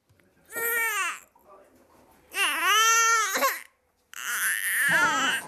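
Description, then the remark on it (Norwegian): A newborn baby only a few weeks old, the tenth child of a family in Lindås, Norway, cries in three loud wailing bursts, each a strained, high-pitched howl separated by brief gasping pauses, with no one else speaking. “Dette er lyden av den sist ankomne i familien ….”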